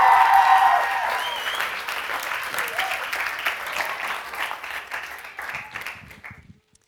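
An audience breaks into thunderous, steady applause as a speaker is invited up to the front of the stage, many hands clapping in a dense, sustained wash that starts strong and gradually thins out before fading away after several seconds.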